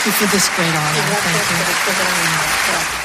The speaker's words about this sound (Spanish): Aplausos para todos los galardonados, aunque la actriz estadounidense se ha llevado la mayor ovación.